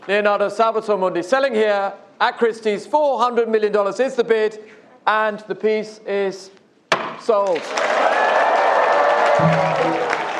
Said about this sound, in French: Et là, on entend adjugé vendu, on entend le coup de marteau surtout.